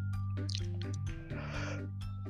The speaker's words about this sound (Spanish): Uh, creo que este fue un récord. 15 segundos, un bostezo, creo que fue un récord mundial, pero bueno. Creo que tuvo que ver con la, con la emoción que sentí en ese momento.